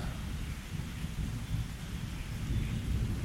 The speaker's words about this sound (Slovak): ktorá môže pomaly zaspávať s príjemnými zvukmi dažďa